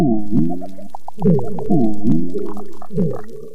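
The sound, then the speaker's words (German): Deep, moaning foghorn-like calls from an unknown source repeat underwater on a coral reef in Indonesia, several low droning blasts with rising harmonics in quick succession, loud with no one talking. “Wer dieses geheimnisvolle Nebelhorngeräusch macht, das weiß bisher niemand.”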